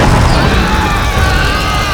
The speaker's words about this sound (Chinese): 就在因拍开箱仔的同时，殊不知火药就带伫保护箱的下层，只要一拍开，火药就会瞬间爆炸。